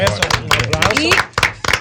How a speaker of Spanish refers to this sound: Wow, un aplauso.